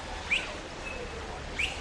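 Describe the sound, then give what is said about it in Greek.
A pet parrot gives two short, rising chirpy whistles about a second and a half apart, fairly soft against a quiet background hum, with no talking. “Ωραία, λοιπόν, έχω ένα παπαγάλο και θα τα πω εδώ.”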